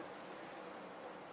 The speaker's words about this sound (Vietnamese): ok rồi đúng không mic nghe tiếng gió nó có nhỉ?